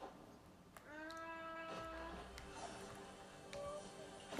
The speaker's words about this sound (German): Digga, der Bus. Digga, dieses Geräusch ist so anders dumm.